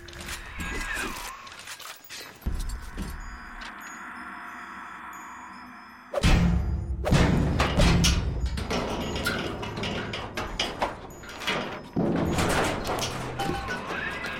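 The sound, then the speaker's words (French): An adjustable wrench bangs on a metal air vent in loud, irregular clanks, some in quick bursts, with a brief lull before a sharp heavy crash and more uneven rattling knocks. “Allez, vas-y, frappe sur l'aération avec ta clé anglaise.”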